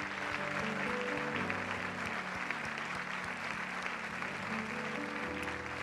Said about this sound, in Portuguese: Podemos aplaudir ao Senhor? Aleluia!